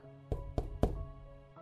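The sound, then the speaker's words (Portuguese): Three soft knocks on a door, evenly spaced, each a short muffled thud over a low steady background hum. “ela ouve uma leve batida na porta.”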